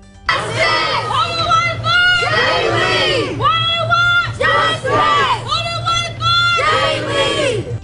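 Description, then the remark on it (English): A large crowd of protesters outside a courthouse in Lafayette County chants loudly in unison, demanding justice during a bond hearing, repeating the same rhythmic phrase again and again, with a steady low hum underneath. “As the hearing goes on inside the courtroom, protesters outside the courthouse are demanding justice.”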